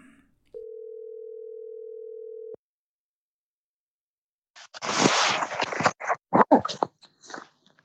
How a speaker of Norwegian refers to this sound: Kanskje vi skal ringe han og høre, da? Vi ringer og hører hvordan det går.